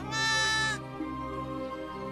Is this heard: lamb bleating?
yes